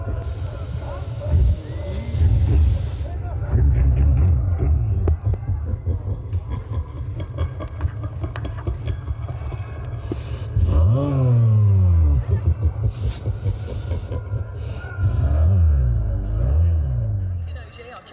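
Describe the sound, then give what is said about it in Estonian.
Rally cars roar along the Mustvee speed test stage at the Põrgupõhja spectator area, engines revving hard with rising whines and gear-change surges, loud bursts around the middle and end, while a person talks over the engine noise. “tulime uudistama, millise kiiruskatse ta rallisõitjatele valmis sepistas.”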